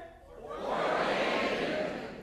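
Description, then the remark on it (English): A live trivia-show audience shouts out the answer "Fort Wayne" together, a loud swell of many voices that rises quickly and holds for a couple of seconds before easing slightly, with scattered laughter mixed in. “Wow, in unison. Well done.”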